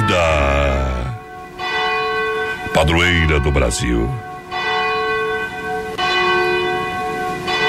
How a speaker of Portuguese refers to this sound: Momento que toca o sino da catedral de Nossa Senhora Aparecida